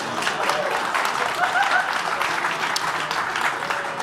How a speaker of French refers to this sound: Il y a bien sûr Accord, euh, Accord Capital National, la Ville de Québec, le gouvernement, tout le monde. On les applaudit. C'est grâce à eux si on est là ce soir.